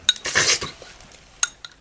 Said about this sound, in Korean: 대화는 끊겼고 우린 말없이 라면을 쩝쩝 소리내며 먹었다.